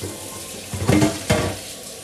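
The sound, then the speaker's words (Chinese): A steady hiss of running tap water, broken by two short, louder bursts of splashing and sloshing as a bowl of peeled food is rinsed. No one speaks. “好了，这一盆剥好了，洗一下。”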